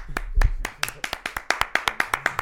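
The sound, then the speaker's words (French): Brisk, steady hand clapping fills a short burst, sharp individual claps arriving in a quick regular rhythm, fairly loud, like a small audience applauding with no voices, welcoming a guest. “Faites du bruit”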